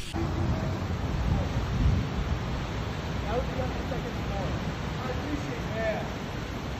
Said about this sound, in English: First, you said the weather. This is weather. Non-stop rain here in North Hollywood.